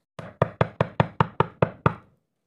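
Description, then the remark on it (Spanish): A quick series of nine knocks on a wooden door, evenly spaced and fairly loud, each a sharp thud with a short hollow decay. No voices. “Cuando llegó, golpeó la puerta.”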